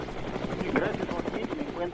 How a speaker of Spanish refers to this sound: Sí, nos vamos en vivo hasta Los Ángeles. Se encuentra en el helicóptero.